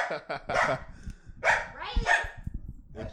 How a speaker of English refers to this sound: That's my dog barking at the balloon. All right, hey, we're trying to record. He doesn't like balloons. Okay. Yeah, he doesn't like balloons.